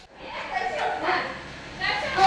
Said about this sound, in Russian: Ну вот, пожалуйста, к детям теперь присоединилась еще и собака. Не знаю, слышно вам ее или нет. Так, я сейчас прямо вот вынесу микрофон, послушайте, как дети орут, как собаки звучат.